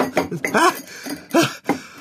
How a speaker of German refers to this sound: Schnell, mach das Glas zu. Beeil dich. Ja, ich mach ja schon. So, Deckel zu.